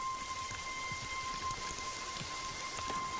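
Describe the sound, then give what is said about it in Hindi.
Steady rain falls in a constant hiss, with scattered drops tapping on a surface and a faint continuous tone humming underneath. No voices. “तूने हाँ बोला था कि बारिश होगी तो तू बात करेगी”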